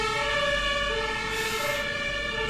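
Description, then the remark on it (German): A passing fire engine siren wails steadily outside, its tones holding loud and continuous with a low engine rumble beneath; no one speaks. “Da brennt es irgendwo.”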